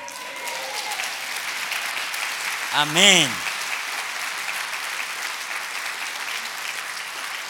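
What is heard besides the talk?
audience applause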